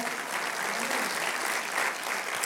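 A crowd claps steadily in applause for God, a dense, continuous wash of many hands with no pauses, holding an even loudness throughout.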